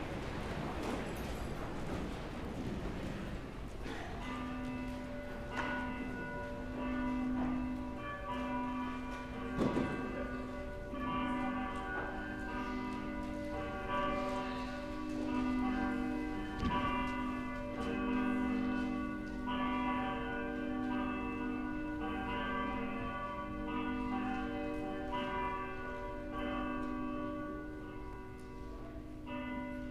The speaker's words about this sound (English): Please stand, and the bells will call us to worship.